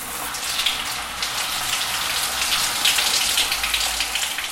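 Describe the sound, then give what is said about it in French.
Shower water runs steadily as someone takes a shower, a continuous hiss of spray pattering down with no pauses and no voices. “Moi, je vais prendre ma douche, ça m'aidera peut-être à trouver des solutions.”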